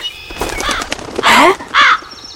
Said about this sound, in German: Na, das glaube ich jetzt aber nicht. Diese freche Krähe hat doch tatsächlich gerade eines der Brötchen geschnappt.